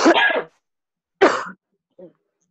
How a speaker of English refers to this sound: and then you breathe in the last time you breathe in hold your breath two three four five and then you breathe out and here comes the cough so now you cough in your elbow